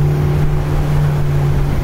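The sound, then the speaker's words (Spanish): A motor launch engine drones steadily as the boat carries passengers from a beach out to an aircraft carrier in the Yellow Sea, a loud, continuous low hum with a rough rumble, without pause or voices. “Nos embarcamos en una de sus lanchas.”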